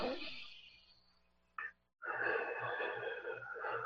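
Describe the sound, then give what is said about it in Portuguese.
Slow, deep calming breaths: a long exhale tapers off, a brief silence follows, then another full, steady breath fills the rest. No one speaks. “Então, quando eu identifico isso, eu me acalmo através da respiração, ó.”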